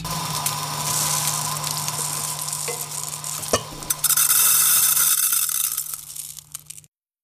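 Bubble tea being prepared in a kitchen: steady stirring and sizzling hiss over a low hum, a sharp clack midway, then a louder, brighter rush before it stops abruptly. No one speaks.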